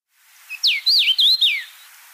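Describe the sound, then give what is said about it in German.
A house finch song played from a recording: one short, bright warbling phrase of rising and falling whistled notes, lasting about two seconds with no voices. “im September kommt es offiziell raus und da ist ein Kamingimpel vorne drauf”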